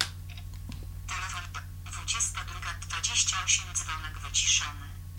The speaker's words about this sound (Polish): Niestety Android 2.1.1 e, nie potrafił przyswoić sobie e, wiadomości takiej, że głos polski ma być domyślnym głosem systemowym i z uporem maniaka przemawiał do mnie w języku angielskim. Słyszeliście Państwo głos